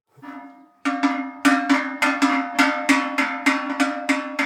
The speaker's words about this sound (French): Moi, j'ai pas l'oreille musicale, mais après, j'ai l'oreille pour les cloches. Euh, voilà, j'écoute une cloche, je dis le bruit me plaît ou me plaît pas.